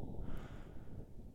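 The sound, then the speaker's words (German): A low, rumbling wind noise recorded on Mars, a steady muffled buffeting concentrated in the low end, fairly quiet and continuous with no voices. “Und was ihr gerade hört, sind Audioaufnahmen vom Mars. Also das ist wahrscheinlich größtenteils nur Wind”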